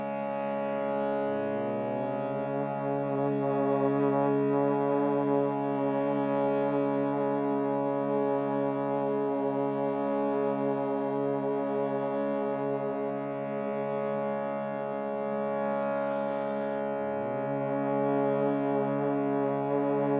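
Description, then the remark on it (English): A person hums on the exhalation during a meditation, a steady, resonant hum held for a long stretch, rich in overtones, with a slight pitch shift near the start and again near the end; no talking, just the sustained drone. “Feeling the sound vibration in your body as you exhale.”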